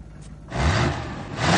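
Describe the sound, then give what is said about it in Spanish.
After a brief quiet moment, an old pickup truck, freshly painted blue, roars loudly, its rough, noisy engine rumble rising in pitch as it revs. “Se queda sorprendido al ver la antigua camioneta funcionando y recién pintada de azul.”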